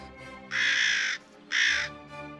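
A raven, the jet-black studio guest Professor Dr. Amadeus, caws twice, loud and harsh, the first call drawn out and the second shorter, with a brief pause between them and no talking.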